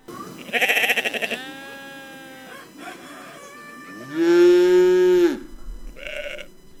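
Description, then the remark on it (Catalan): Farm animals on an idyllic farm in the Emmental region of Switzerland call out in turn: a couple of wavering sheep or goat bleats followed by a long, deep cow moo, then a short bleat, with no one speaking. “rutes temàtiques, fabricants de trompes alpines i granges idíl·liques, com aquesta que escoltem.”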